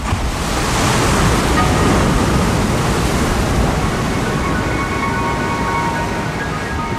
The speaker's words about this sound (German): Wir legen die Platte auf und wir befinden uns am Meer.